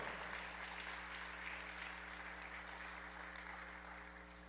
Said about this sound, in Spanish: Pero dale un aplauso al Señor entonces, sí, apláudale al Señor.